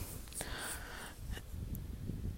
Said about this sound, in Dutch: Oh, het waait echt ontzettend hard nu.